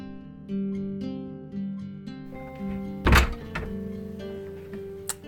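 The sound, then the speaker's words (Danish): An apartment bedroom door shuts with one solid thud about halfway through, followed later by a faint latch click, while soft tonal music plays steadily in the background. “Jeg lukker døren her ind til min lejligheds bedste læserum, soveværelset.”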